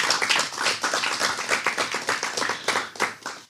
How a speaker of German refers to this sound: Zuerst einmal danke, einen Applaus. Merci viel, viel mal.